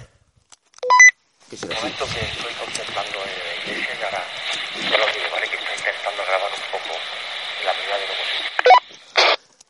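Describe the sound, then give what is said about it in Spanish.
A garbled, crackling phone line buzzes with interference for several seconds, a caller inside a religious sanctuary barely discernible beneath the hiss, framed by short electronic beeps at the start and end. “Se escucha muy mal, ¿eh? Con interferencia.”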